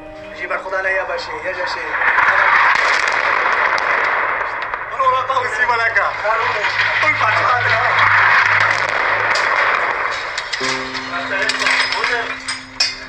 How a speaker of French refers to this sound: Euh, oui, c'est c'est la vidéo d'une frappe aérienne qui a été prise par un de mes camarades.